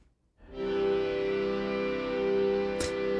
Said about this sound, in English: this really cool old sort of reed organ thing with a with a fan in it that's louder than the actual organ